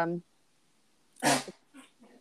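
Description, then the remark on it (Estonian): A brief voice sound opens, then a dog gives one loud bark followed by two short, softer growling grumbles. “oi, koer”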